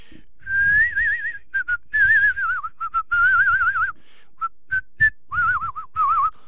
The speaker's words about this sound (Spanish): Pero aparte no es el silbido común. Mira, cuando mira, bajame la música. Este es el silbido de viejo, ¿viste? Mira.